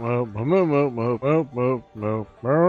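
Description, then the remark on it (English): A voice imitates a cow, mooing about seven times in a steady run of short, loud calls with brief pauses between them. “Moo moo moo moo moo moo moo.”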